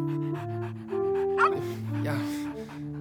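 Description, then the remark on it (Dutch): A small fire station dog, being given a burger, pants and lets out a quick, high yip midway, with a steady tonal hum running underneath throughout. “Dag kleine stoere brandweerhond.”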